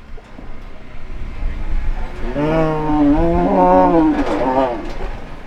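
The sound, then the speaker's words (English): Cattle low at a ranch in Idaho as cowboys brand and vaccinate them: a long, drawn-out moo with overlapping calls that waver in pitch, fairly loud, over steady outdoor rumble and ranch background noise. “Back at Ellis's ranch, I watch cowboys brand and vaccinate cattle”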